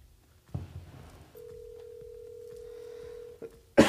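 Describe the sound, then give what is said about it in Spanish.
A phone line rings out with one long, steady ringback tone lasting about two seconds, framed by a soft thump before it and a sudden loud burst of noise just after. “Ni nos escucha, güey luego nos va a escuchar porque le llamaste y va a decir que no te acordaste del nombre.”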